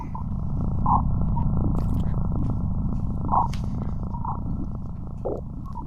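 Sonified space data: optical signals and magnetic field measurements shifted in the frequency spectrum until audible, giving a dense, throbbing low rumble with eerie croaking, warbling tones rising out of it at a few points, plus faint crackles and clicks, continuous and steady throughout.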